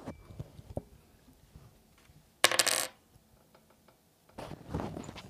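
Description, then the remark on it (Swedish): Dice clatter and roll across a hard tabletop in two short rattling bursts after a few faint clicks, with no one speaking; the die is rolled to randomly pick a listener in a prize draw, with the microphone lowered to pick it up, and lands on 67. “Jag ska bara sänka micken här så ni hör min tärning.”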